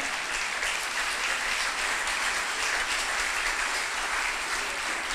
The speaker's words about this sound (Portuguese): Ele é merecedor de um aplauso, meu irmão. Ele é merecedor de um aplauso ao Senhor. A ele toda a honra.